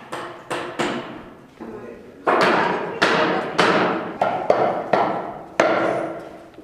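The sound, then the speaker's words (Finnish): Hammering knocks from a workshop next door at Lahti harbour, about a dozen loud, sharp blows at an uneven pace, each one ringing out briefly before the next strike, with no talking. “eli tässä on tämä propoo verstas tuossa vieressä, sieltäkin vähän nakutusta kuuluu jotakin hiomakoneen ääntä”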